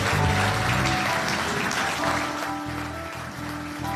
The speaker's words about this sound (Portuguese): E uma salva de palmas para Jesus. Aleluia.